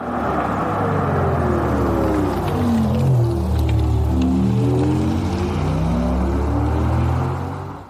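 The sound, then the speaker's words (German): An Audi e-tron electric car's pedestrian warning sound as used in the USA: a steady, synthetic humming drone of layered tones that rise and fall gently in pitch, loud and continuous for about eight seconds with no talking. “Wir hören uns jetzt mal an, wie ein Audi e-tron in den USA klingt, denn da müssen die ja schon mit Sound unterwegs sein.”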